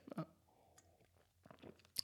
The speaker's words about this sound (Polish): Herbaty łyk i lecimy w mig, ale lipa.